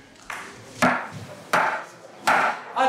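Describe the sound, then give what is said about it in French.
An auction gavel strikes a wooden block in a steady series of sharp, resonant knocks, about one every three-quarters of a second, fairly loud, with no voices. “Eh bien, en effet, exit le vieux euh, café poussiéreux ou la salle du village avec le notaire et son marteau.”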